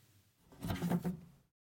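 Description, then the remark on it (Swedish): An upper kitchen cupboard door, one rarely opened, swings open once with a short wooden creak and rustle lasting about a second as someone cleans the cupboards, then silence. No voices. “Vid något tillfälle när jag städade hemma eller höll på hon får för sig att hon ska städa i skåpen hon aldrig någonsin öppnar.”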